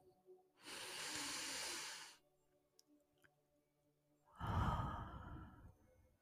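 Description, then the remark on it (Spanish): A long, airy deep inhale lasting over a second, a short quiet pause, then a fuller, heavier exhale with a breathy rush, with no talking. “Y la vamos a traer a este estado de presente en donde nos encontramos, respirando profundo.”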